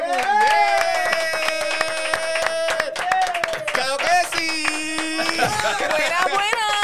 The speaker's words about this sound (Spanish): So que, gente, para no alargar esta mierda más nada y presentarlos como ellos se merecen, recibamos con un aplauso más grande que no sé quién.